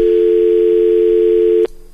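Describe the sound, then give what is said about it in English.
A loud, steady telephone dial tone, heard after a phone call was accidentally hung up by hitting the wrong button, hums continuously for over a second and a half, then cuts off abruptly, leaving a faint low residual sound. “And I, I hit the wrong button. every now and then I do that. I hit the wrong button. I just hung up”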